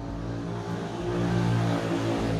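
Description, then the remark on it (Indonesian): A motorcycle engine hums and revs as it passes by, its droning tone swelling louder midway through before easing slightly, with no voices over it. “motor, motor anjing”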